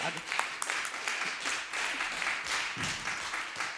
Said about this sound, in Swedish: Jag tycker vi ger dem en applåd.